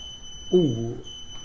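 A thin, high-pitched electronic alarm tone sounds steadily in the background throughout, while a person makes a brief vocal sound partway through.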